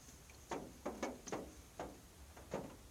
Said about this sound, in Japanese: 雨音になってます。